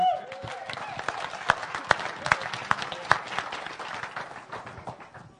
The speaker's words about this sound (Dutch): extra applaus.